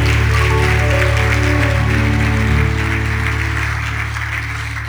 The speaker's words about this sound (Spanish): Te celebramos con este aplauso en el nombre de Jesús. Amén y amén.